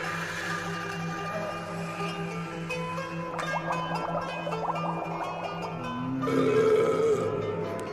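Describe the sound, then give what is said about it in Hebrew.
A long, deep burp rumbles up close over bubbling, gurgling water sounds and a steady low drone, growing louder and fuller toward the end. “הגרפס הזה הוא תרומה של הטכנאי”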